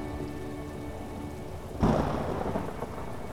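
Steady rain hisses throughout, then a sudden thunderclap bursts in partway through and rolls on as a deep rumble beneath the continuing downpour.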